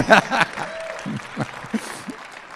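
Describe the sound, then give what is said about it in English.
An audience in a church claps in a dense, scattered burst that is loudest at the start and then thins out, with a few voices calling out over it. “My wife just stepped out probably to feed the baby because I was like, I needed a little more applause from her.”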